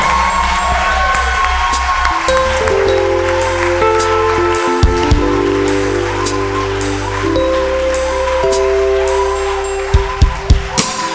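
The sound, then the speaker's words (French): A crowd shouts and cheers for joy, acclaiming God, in a steady, noisy wash over loud music with sustained bass and keyboard tones, with a few sharp rhythmic hits near the end. “Ce sont des cris de joie, des cris d'allégresse, des cris de joie.”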